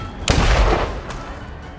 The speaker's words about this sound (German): Alter. Das war ein Golfball. Junge, warum explodiert der?